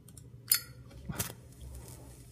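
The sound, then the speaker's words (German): A cigarette being lit, played as a sound effect: a sharp metallic lighter click, then a second brief, breathy flare a moment later, over a low steady hum with no talking. “ich würde mir jetzt erstmal eine Zigarette anstecken.”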